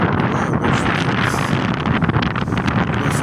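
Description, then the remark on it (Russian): Steady, loud wind on a windy day buffeting directly against the microphone, a constant rumbling roar with gusty fluctuations and no voices, filling the whole stretch. “ветрено опять, но надо терпеть природа, обстоятельства нам не предоставят эксклюзивных и уникальных условий.”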